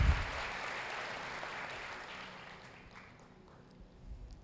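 An audience applauds the Lord Jesus with sustained, dense clapping that holds steady for a couple of seconds, then gradually thins and fades, with a slight swell again at the end.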